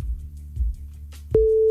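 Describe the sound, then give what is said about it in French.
A steady, pure telephone busy tone cuts in abruptly near the end and holds, loud, after a stretch of low, muffled handling rumble over the line, as a phone call is cut off. “Ah voilà, ça a coupé de rien du tout.”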